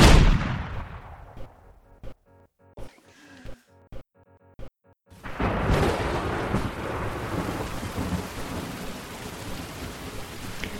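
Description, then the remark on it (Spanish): A loud thunder rumble fades out, a few scattered sharp taps follow, then rain suddenly starts pouring in a dense, steady hiss that continues to the end, at the place where Noah was building the ark. “Está comenzando a caer lo que pareciera”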